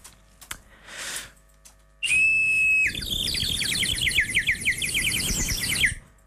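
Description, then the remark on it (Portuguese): A water whistle trills and warbles like a songbird, starting with a steady high tone then breaking into rapid bubbling chirps for several seconds, loud, after a few brief handling noises. “Bom, uh, isto, na minha mente, é a experiência mais realista de recriação do som de um pássaro que alguma vez foi feita.”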